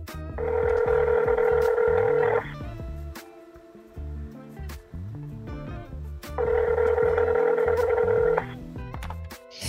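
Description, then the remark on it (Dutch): A telephone ringing tone from a call being placed to a colleague sounds twice. Each long buzzing ring lasts about two seconds, with a pause of roughly four seconds between, over a steady low rhythmic background. No one speaks. “wat fijn dat ik even met jou kan bellen.”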